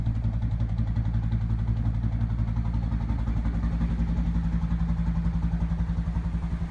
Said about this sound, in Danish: Det du hørte er lyden af en Alfa Diesel, motoren på det tomastede bevaringsværdige skib Aventura. Det skib har i mange år pløjet Lillebælts smulte vande tynd i jagt på marsvin.